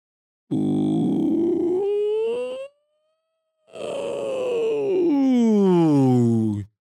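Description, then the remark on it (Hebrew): A single voice demonstrates a vocal exercise, singing a whimpering, cry-like glide on an oo vowel, sliding upward, pausing briefly, then sweeping back down in a second long, sustained wail. “פשוט לעשות איזה גלייד כזה על הוא שהוא קצת בוכה, לשים לב שאתם לא דוחפים יותר מדי אוויר, ואתם גם לא נהיים אווריריים מדי.”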